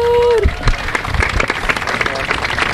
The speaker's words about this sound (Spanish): Un aplauso para Reciclar Sur.